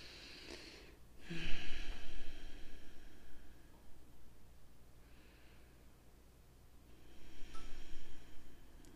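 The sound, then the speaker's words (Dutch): Slow, deep breaths: a long airy inhale swelling around two seconds, a quieter exhale, then another drawn-out breath near the end, with no talking. “En adem maar eens heel diep in en uit.”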